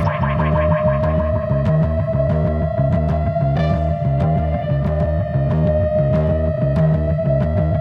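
A driving electronic dance track plays loud and steady, with a pounding repeating beat, a sustained bright synth tone, and heavily effected, distorted layers; no one speaks over it.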